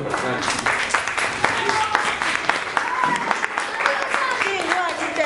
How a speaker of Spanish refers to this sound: Pues, pues muchas gracias por esta entrevista. Un aplauso